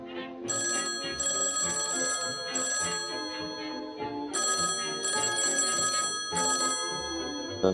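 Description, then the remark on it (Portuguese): A telephone on a desk at the Clarim, a local newspaper, rings in repeated bursts, a bright metallic trill sounding several times with short gaps between rings, loud, with no voices present. “No mesmo instante onde vocês dois entraram, lá na mesa do Clarim, no jornal local, toca o telefone.”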